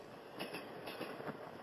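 A train rumbles as it pulls out of a station at night, its headlight lit: a steady, broad roar of wheels and carriages, punctuated by a few rhythmic clacking bursts. No voices.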